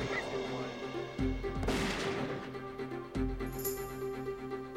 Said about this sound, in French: Après chaque détonation, Reeves éloignait le microphone du canon de quelques centimètres. Ainsi, le flash serait activé un peu plus tard et le projectile parcourrait une distance plus longue.